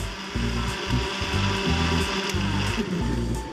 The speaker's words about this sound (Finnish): herätät kumppanisi joka aamu blenderin surinaan. Pakasteherukat ja äidinpoimimat vademmat mössöityvät piimän kanssa terveelliseksi vitamiinipommiksi